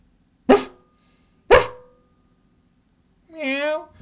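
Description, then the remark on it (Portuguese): An older man in the metro imitates a dog barking: two sharp, loud barks about a second apart, followed after a pause by a drawn-out, wavering meow-like vocal cry. “o gajo começou a ladrar e a mear no meio do metro.”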